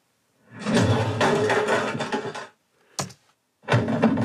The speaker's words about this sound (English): Well, that's Foley giving us the body fall. And I remember they actually had an old printer that they destroyed to help us hear this sound. So there's a bit of violence in that.